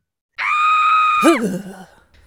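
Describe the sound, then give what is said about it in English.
A single loud, sustained human scream lasting about a second, then breaking into a wavering, descending groan that trails off, used as a sound effect. One voice, no other sounds. “Scringe. To scream and cringe at the same time.”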